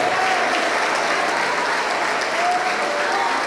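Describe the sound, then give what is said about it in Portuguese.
A church audience applauds the name of Jesus steadily, a dense, continuous wash of many hands clapping at an even loudness for the whole stretch, with a faint tonal hum threading through. “Ô oh, glória, vamos aplaudir, igreja.”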